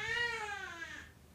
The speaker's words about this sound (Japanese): 猫泣いてないお前後ろで猫じゃない猫は飼ってない猫泣いてない猫は泣いてない、ね、反省してないだろ猫撫でてるだろお前今